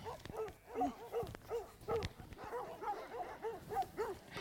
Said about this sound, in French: Donc ça, c'est les chiens que je viens de caresser. Hein. C'est une demi-heure après. Sauf que là, ils sont au troupeau, ils sont au travail, c'est plus le même contexte.